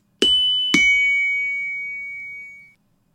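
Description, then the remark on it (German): A shop entrance sound effect from a Star Wars film: two bright chime strikes about half a second apart, each with a sharp attack and a long shimmering ring that slowly fades out over two seconds. No voices. “Ich meine, das ist Vatus Laden auf Tatooine.”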